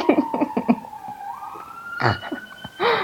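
A London police car siren wails with a steady, gliding tone that slowly rises in pitch, accompanied by soft rhythmic musical thumps and brief bursts of noise.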